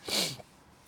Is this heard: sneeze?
yes